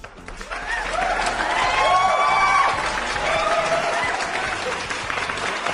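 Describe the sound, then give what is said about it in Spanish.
Sustained applause from a crowd for an iconic music group, dense clapping that swells and holds steady for several seconds, with some cheering and whoops rising above it. “La neta dice, esto sí merece un valioso y merecido aplauso, maldita sea.”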